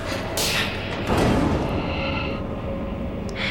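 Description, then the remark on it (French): A dull, muffled thump as someone knocks into something, a single brief impact rising out of a steady, rumbling background noise that continues throughout. “Je me suis cogné, rien de grave.”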